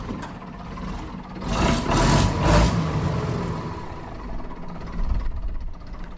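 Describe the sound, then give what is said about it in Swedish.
A heavy six-cylinder truck diesel engine fitted in a lengthened 1952 Volvo T31 tractor with a raised hood rumbles steadily, a low throbbing idle that swells as it revs up briefly, with a bright hiss of air bursting out partway through. No one speaks. “Så här låter den alltså, en Volvo T31 från 1952, men på steroider.”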